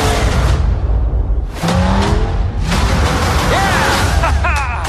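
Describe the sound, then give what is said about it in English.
A trailer for an animated show about cars: loud, busy car racing sounds, engines revving and whooshing past with tire skids, layered over music-like tones and brief voices, continuous throughout. “Here's the trailer.”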